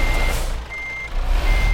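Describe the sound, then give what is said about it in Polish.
A semi-truck with a trailer idles and rumbles low while reversing to park, its backup alarm sounding steady, repeating beeps in a regular on-off rhythm, fairly loud. “w takim ciągniku siodłowym się skręca odwrotnie niż, e, niż w samochodzie bez naczepy.”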